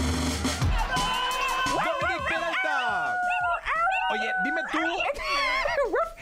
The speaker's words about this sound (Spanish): ¿Cómo ladra Pontón, por favor, otra vez?